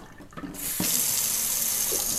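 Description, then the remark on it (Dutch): A hot water tap is turned on and hot water gushes steadily into a sink, a bright hiss after a brief quiet start, with a soft clunk shortly after the flow begins as the sink dents from the heat. “Ik ga eerst heet waterkraan aanzetten en dan gaat de bom hoor je zo dat is dan de uh, wasbak die uitdeukt door de hitte.”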